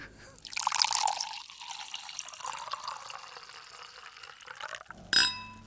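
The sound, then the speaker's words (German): Wine pours steadily into a glass for several seconds, a gurgling splash that fills and brightens, ending with a short, bright clink of glass. No one speaks. “Bei einem nun unter Anleitung richtig eingeschenkten Shoppen lässt sich mit dieser Kreativität, die der Boxbeutel in uns Menschen auslöst, auch ausgiebig über die Herkunft des Flaschennamens Boxbeutel diskutieren.”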